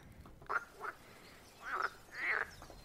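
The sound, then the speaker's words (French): Frogs croaking in a garden in a few separate bursts, two short calls followed by two longer, louder ones, over a quiet hissy background with no talking. “Parmi les croisements, on entend une voix, une voix masculine.”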